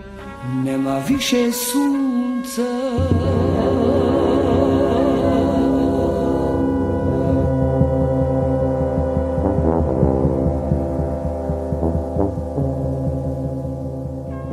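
A song plays at steady, full volume, with layered sustained instruments and bright melodic lines weaving over a low, droning accompaniment; no voices talk over it.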